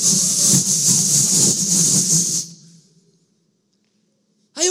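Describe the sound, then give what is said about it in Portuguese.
A voice imitates a blowtorch flame with a loud, steady, breathy hiss and roar for about two and a half seconds, then trails off into silence before a short sharp sound at the very end. “Você e eu precisamos conhecer uma fé mais forte, como se fosse uma chama de fogo mais vívida, tipo um maçarico na sua mão.”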